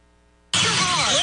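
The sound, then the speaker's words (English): After a brief near-silent moment, the engine of a truck heading to a food pantry cuts in abruptly, a loud, steady rumble with broad road roar that carries on to the end. “We follow this truck heading to Pantry 279.”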